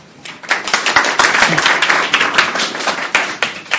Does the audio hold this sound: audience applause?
yes